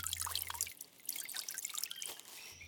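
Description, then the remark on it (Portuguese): Water pours and splashes steadily onto leaves and ground as the trees of a forest are watered, a bright, busy patter of drips and trickles, with a low hum underneath at the start and end. “Em um belo dia, o curupira caminhava pela mata e regava as árvores da região.”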